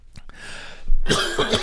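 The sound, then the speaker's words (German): A person coughs, a couple of harsh, raspy bursts following a quieter throat-clearing breath, with no talking in between. “nochmal husten, sorry.”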